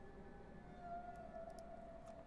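A faint siren wails in the distance, a steady tone rising slightly in pitch over a low background rumble, with no voices present.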